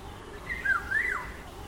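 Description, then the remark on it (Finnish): A Eurasian golden oriole sings a short, fluting whistled phrase in two rising-and-falling parts, clear over a faint background hush. “se on niin kuin kaunis mun mielestä on vaikein koskaan kuullutkaan livenä, niin kuhan keittää ihan mahdottoman kaunis.”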